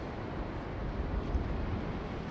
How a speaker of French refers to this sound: Ça souffle le vent là. Hein. ah, ça souffle